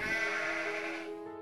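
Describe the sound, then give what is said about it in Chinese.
A young goat at a small farm where children are petting young goats and ponies lets out a single long, wavering bleat, high-pitched and fairly loud, holding steady for over a second before trailing off. No one speaks. “在旁边的小型农场里，小朋友们正热情地抚摸着小山羊和小马呢。”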